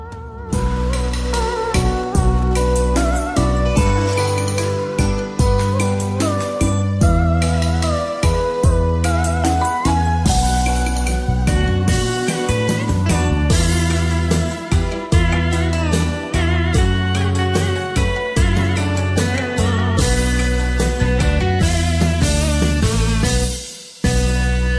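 The opening of a song with a female vocalist plays loud and full, with a steady beat, deep bass and bright melodic lines, breaking off briefly near the end.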